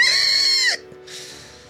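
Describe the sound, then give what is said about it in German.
A voice imitates a creature's pained squeal after it is hit by a fireball: one loud, high-pitched, shrill cry lasting under a second that cuts off abruptly, followed by a faint breathy hiss. “äh, quiekt, schrei, äh, quiekt wirklich schmerzerfüllt auf.”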